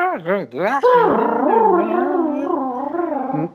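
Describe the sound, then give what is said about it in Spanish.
A voice mimics a dial-up modem connecting to the internet through the telephone, with rapid warbling pitch sweeps and then a long, wavering electronic-style tone. It is loud, and nobody speaks. “Ah, te decía, el, nacimiento del Internet como tal, de ese Internet eh, que escuchaba bueno, que te conectabas a través del teléfono, escuchabas”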